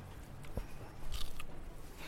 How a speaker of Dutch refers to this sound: nog even een hapje van de peer.